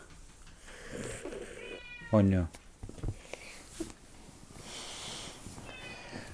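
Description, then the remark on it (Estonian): A single loud, short cat meow cuts in around the middle, with people talking quietly before and after it. “kas kass on ka loodus või? ei ole, kass on loom, mitte loodus.”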